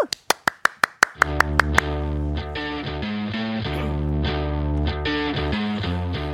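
pop song intro playing

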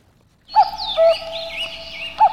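cuckoo call

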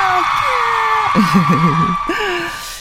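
audience whooping and shouting

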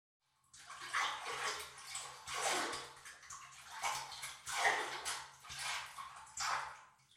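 water splashing

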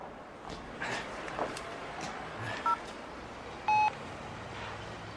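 telephone keypad dialing tones

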